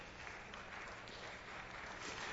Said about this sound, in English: That's a good applause for a tithing sermon. I'll take it, right?